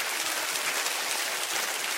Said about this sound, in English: I think it'd be very germane right now to give the Lord a great big hand clap and just say thank you.